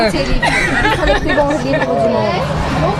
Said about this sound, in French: on est en interview, mais apparemment on est coupé par des fans qui veulent des autographes. Donc on va les laisser venir. Mince, je ne pensais pas qu'il y en aurait 40 derrière.